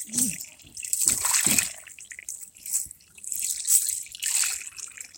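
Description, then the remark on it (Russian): Icy slush is pumped through a tube, scraping and gurgling in uneven surges, a wet crackling hiss that swells and fades several times, with faint low murmurs underneath. “Pushing ice through a tube”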